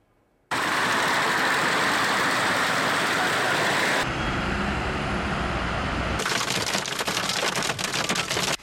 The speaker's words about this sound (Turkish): Cuma trafiğine eklenen yağmur trafiği yollarda uzun araç kuyrukları oluşturdu.